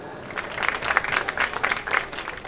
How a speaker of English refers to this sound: Thank you very much for that entirely undeserved uh, applause.